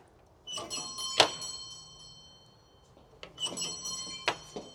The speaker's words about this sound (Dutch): Echt de oude bel.